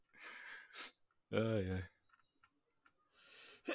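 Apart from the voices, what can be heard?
sneeze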